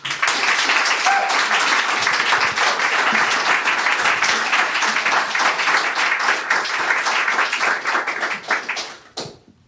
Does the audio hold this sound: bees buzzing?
no